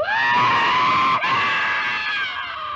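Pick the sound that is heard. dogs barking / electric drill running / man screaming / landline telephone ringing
man screaming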